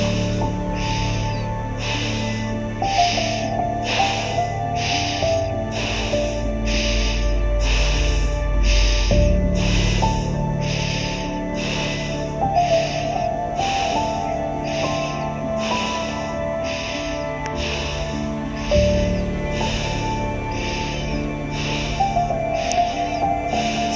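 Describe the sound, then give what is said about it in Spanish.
Fast, rhythmic breathing through the nose in a guided breathing exercise, sharp even exhalations repeating about once a second for the whole stretch, set over a steady droning musical background. “Sigue respirando en ritmo, sin pausa y quemen este fuego.”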